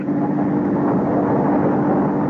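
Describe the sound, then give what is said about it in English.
Steady engine rumble and road noise, like riding inside a moving car as it drives across a bridge, holding an even, unbroken drone throughout with no voices. “We're on the bridge now. Let me concentrate on driving.”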